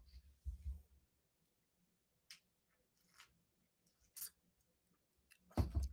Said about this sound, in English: Sorry for hearing me slurp coffee.